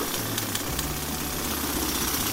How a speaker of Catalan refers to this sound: Són les obres d'una gran caldera de biomassa a la seu d'Urgell, subvencionada amb fons europeus.